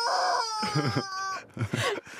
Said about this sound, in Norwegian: kylling du kan klemme på som lager lyd